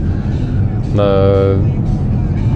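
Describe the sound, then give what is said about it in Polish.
Steady low rumble of a car's interior while driving home from work, a continuous engine and road drone filling the whole stretch, with a person's brief drawn-out hesitation sound in the middle. “Nagrywam w samochodzie, tak przy okazji.”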